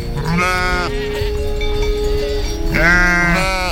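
Two drawn-out sheep bleats, each wavering and nasal, separated by a short pause, with a steady low background murmur of other animals or ambient noise underneath.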